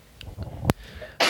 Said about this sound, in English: I've just sneezed. Okay.